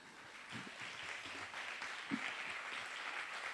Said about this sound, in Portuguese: Receba o pastor Ismael da PIB de Barra Mansa com uma salva de palmas.